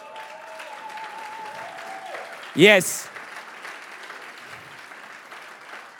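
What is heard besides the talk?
audience applause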